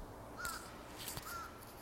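Birds call twice, about a second apart, with short harsh cawing notes that sound somewhat distant against quiet outdoor background noise.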